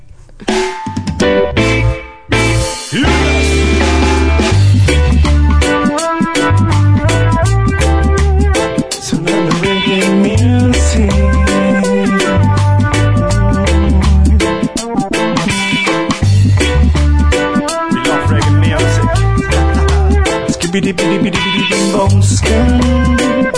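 A reggae song, recorded and mixed in a studio in Valencia, plays loud and steady, with a deep, bouncing bassline, offbeat rhythm guitar and a sung vocal in English riding on top of the full band.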